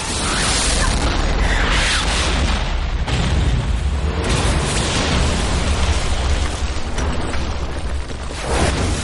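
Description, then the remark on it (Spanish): A massive explosion, set off when a collapsing tower falls onto a truck, roars with a dense, sustained rumble and crackling debris that fills the whole stretch, loud, with a second surge of blast noise partway through. “La torre cae sobre el otro camión y se produce una explosión.”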